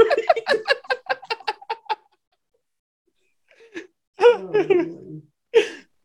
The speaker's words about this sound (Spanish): No, ese chingado gato está más espantado que nada, pues tanta chingadera que ha visto.